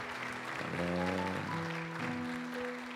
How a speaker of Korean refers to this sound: 우리에게 그런 특권과 기회를 주신 하나님 앞에 다시 한번 영광의 박수 올려드립니다.